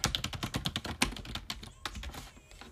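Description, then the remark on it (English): Rapid, uneven clicking of keys on a computer keyboard, fairly loud, with bursts of keystrokes and brief pauses, no voices. “I know y'all hear my my computer going off, so I'm working.”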